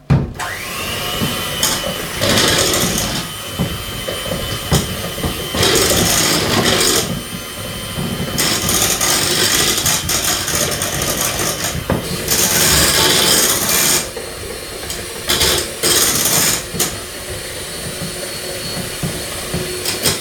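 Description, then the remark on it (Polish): An electric mixer whirs steadily at low speed as the first glass of flour is mixed in a pot, its motor hum rising into louder, rougher bursts every few seconds as it churns through the flour. No voices. “dodam pierwszą szklankę mąki i miksuję. Oczywiście na początku na wolnych obrotach, żeby mi całej mąki natychmiast nie wywiało z garnka.”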